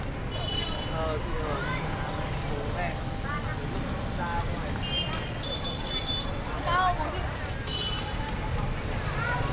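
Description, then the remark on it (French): Open-air ambience of a busy public square in front of a cathedral in Hanoi at night: a steady wash of crowd murmur and traffic rumble, with scattered higher voices or chirps rising briefly above the constant background. “Nous nous dirigeons vers la sortie Nous voilà dehors, sur la place, devant la cathédrale.”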